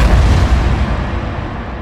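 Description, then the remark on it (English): A loud, heavy crash of stone walls grinding and smashing together in a quake, a deep rumbling roar that stays dense and sustained for the whole two seconds, with no voices. “Then the walls smashed together.”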